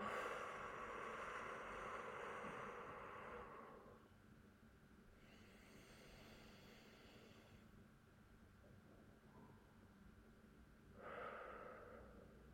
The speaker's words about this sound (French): On prend une grande inspire, une grande expire.